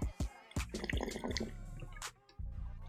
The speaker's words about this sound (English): Um, before we do, let me get a swig of this water. You know how we do.